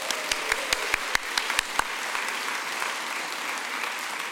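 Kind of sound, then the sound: crowd, audience applause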